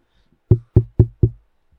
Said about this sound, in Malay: Mungkin kita boleh datang rumah dia Dengan cara yang berlainan Kita datang ke rumah uncle dulu Kita ketuk